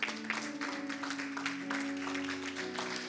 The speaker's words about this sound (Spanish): Vamos, ponte de pie conmigo y dale un fuerte aplauso al Señor.